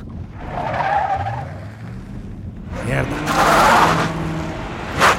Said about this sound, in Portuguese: Tem um carro me seguindo? Ai, merda!